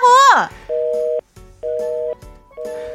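A short vocal cry cuts off as a phone call is hung up, then the disconnect tone beeps steadily, three long, even electronic tones with brief gaps, clear as from a handset.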